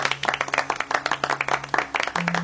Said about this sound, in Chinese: 来来来，鼓掌！